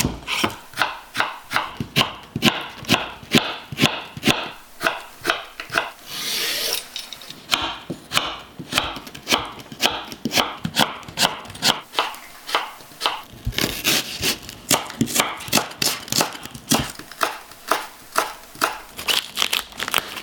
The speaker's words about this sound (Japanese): 目覚めのいいね今朝は千切りのいい音それではお聴きください